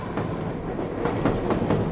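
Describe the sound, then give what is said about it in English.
A train rolls by on the tracks with a steady low rumble and irregular clacks as the wheels cross rail joints, loud, with no voices. “I was a kid, I laid awake at nights and heard the sounds of trains.”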